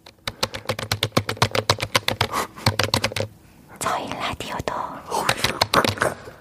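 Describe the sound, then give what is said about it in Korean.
Rapid clicking of computer keyboard keys, typed as ASMR, fills the first few seconds in a quick, uneven rhythm, then gives way to soft breathy whispering with a few scattered taps. “키보드를 치고 있습니다.”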